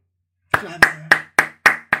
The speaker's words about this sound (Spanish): Aplausos se escuchan.